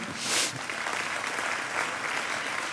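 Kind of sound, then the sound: crowd, audience applauding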